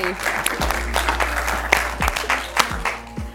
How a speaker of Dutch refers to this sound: Als je dan de gelegenheid hebt om een, eh, om een zaal met applaus te horen, dan is dat eigenlijk gewoon ook heerlijk.